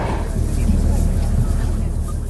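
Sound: bus driving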